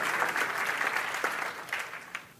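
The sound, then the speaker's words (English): A crowd applauds steadily, many hands clapping in a dense, continuous patter that holds at a moderate level throughout, with a few sharper claps standing out near the end. “I'm going to wait while you clap your hands because that's the truth.”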